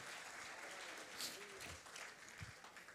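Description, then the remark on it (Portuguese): A standing audience applauds the Lord together in a steady, dense wash of clapping that holds at an even level for the whole stretch, with a few faint voices mixed underneath. “Podemos aplaudir ao Senhor juntos.”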